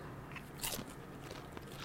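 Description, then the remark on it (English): A crunchy bite into nachos topped with shaved red onion: a sharp crackling snap followed by a few softer crunches, fairly quiet overall with no talking. “I'm gonna get a big bite.”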